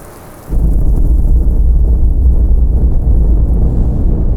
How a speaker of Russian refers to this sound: Вдалеке послышался взрыв.